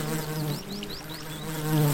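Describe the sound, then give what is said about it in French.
A flying insect buzzes steadily, a continuous droning hum that swells slightly near the end, with a few faint high chirps in the background and no voices. “Mais on dirait qu'il y a un bourdonnement vous entendez”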